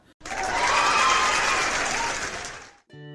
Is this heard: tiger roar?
no